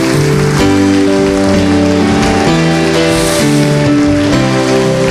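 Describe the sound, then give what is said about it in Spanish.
An audience applauds loudly for the Lord in a dense, continuous roar of clapping that fills the whole stretch, while sustained chords from a keyboard play steadily underneath. “Acompañe a un fuerte aplauso al Señor.”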